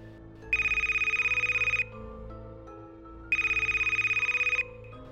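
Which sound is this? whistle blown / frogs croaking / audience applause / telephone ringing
telephone ringing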